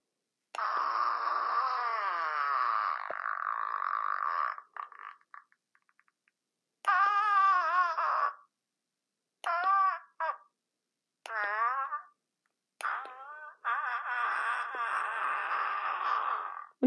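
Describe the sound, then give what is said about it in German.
A series of buzzy, wobbling fart noises from a whoopee cushion toy being pressed to play all of its sounds: a long drawn-out blast, then several shorter bursts with bending pitch, and another long one at the end, with no talking. “Ich habe mir tatsächlich den Anfang, als ich das Furzkissen bekommen habe, gemerkt.”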